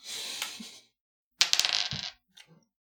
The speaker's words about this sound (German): Ähm, dann darfst du dafür würfeln.